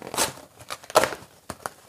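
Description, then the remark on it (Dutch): Crinkling and tearing of plastic bubble wrap being pulled off a package, in several irregular bursts with brief pauses between them and no talking. “Oké, dus de, het eh, bubbeltje papier is eraf. Ja, het bubbeltje papier is af.”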